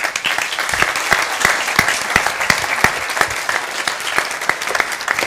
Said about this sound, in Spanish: Por pues fue un gran aplauso para ella.